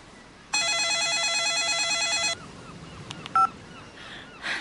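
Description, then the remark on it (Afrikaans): A telephone rings with a loud, warbling electronic trill lasting about two seconds, followed by a couple of short beeps against a quiet background with no talking. “Is daar fout? Hoekom bel jy weer?”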